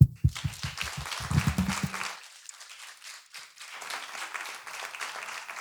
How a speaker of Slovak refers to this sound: Takže ďakujem veľmi pekne aj vám všetkým. Odo mňa tiež jeden potlesk.